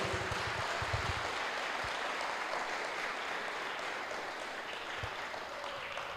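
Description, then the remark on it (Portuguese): A church audience claps steadily for about six seconds to applaud the Lord, a dense crackling wash of many hands at an even loudness, with a few low thumps near the start and once more toward the end. “Você pode aplaudir o Senhor por essa declaração?”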